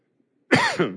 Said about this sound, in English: Excuse me.